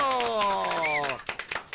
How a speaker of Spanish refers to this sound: Gracias, eres Dios muchachos, aplauso.